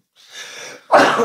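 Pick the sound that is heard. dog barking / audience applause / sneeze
sneeze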